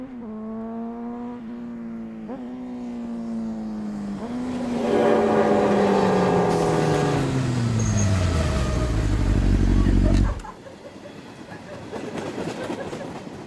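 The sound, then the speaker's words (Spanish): A motorcycle carrying a woman on the back revs up through a few gear shifts, growing louder, then its pitch sinks steadily as it roars off along the path beside the railway tracks before cutting out abruptly. “La mujer, en la euforia del momento, se sube a la parte trasera de la moto y al sentir el arma, le propone ir a tirar.”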